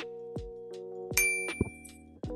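A desk bell is struck several times in quick succession, each bright ding ringing on and overlapping the next, loud with no talking.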